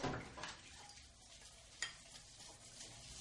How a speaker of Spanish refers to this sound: Hay una escena donde están en la cocina y se escucha, por ejemplo, agua, agua hirviendo, cacerolas pegándose, ¿no? Entonces, eh, yo, para mí esos eran como apuntes de realidad, apuntes sonoros de realidad que se le daba a las escenas.